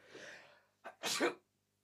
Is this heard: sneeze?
yes